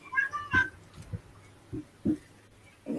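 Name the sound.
cats fighting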